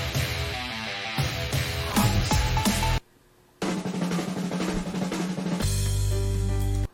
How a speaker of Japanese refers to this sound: ダンスの中でもじゃあブレイクビーツ7件あるんでブレイクビーツ聞いてみますブレイクビーツブレイクビーツっていうのは DJ がね、えー、何皿を2枚使って繰り返す繰り返すみたいなね激しいなあ激しいな